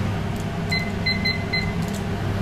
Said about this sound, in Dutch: Nou, ik heb een harde, een luide kookwekker gebruikt. Maar... En ik heb echt het idee dat iedereen weer wakker wordt. Want het lijkt echt heel hard.